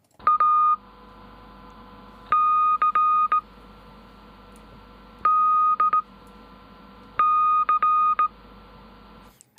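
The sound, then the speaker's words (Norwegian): Morse code beeps spelling out a band's name as a quiz: a steady electronic tone keyed on and off in long and short pulses, forming four distinct clusters separated by pauses, loud and clear with no voices. “Men nå er det o-fag, og eh, vi spilte for en liten stund siden en liten prøve i morse, kursing.”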